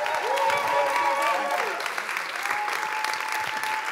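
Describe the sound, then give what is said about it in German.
Steady, dense applause from a crowd welcoming a speaker, a continuous wash of many hands clapping at full volume, with faint whistles and cheers woven through it. “Yes! Applaus”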